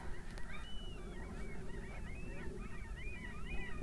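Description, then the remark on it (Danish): A flock of gulls that have found something to eat squawk and cry over one another in a continuous, overlapping chorus, steady throughout, with no voices. “Sådan en masse måger, der er i gang med at have fundet et eller andet, de kan æde, men vi kan skændes om.”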